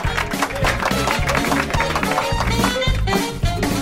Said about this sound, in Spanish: Pon un aplauso ahí, Carlos, por favor. Un aplauso, un aplauso.